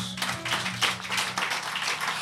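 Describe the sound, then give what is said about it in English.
A crowd claps for Jesus together in a dense, steady patter of many hands, fairly loud and continuous, with a faint low hum or musical tone underneath. “Clap for Jesus.”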